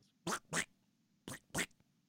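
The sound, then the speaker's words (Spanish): Four short, raspy duck quacks come in two quick pairs separated by a brief pause, loud against a faint low hum, with no talking. “Así le hace, como pato.”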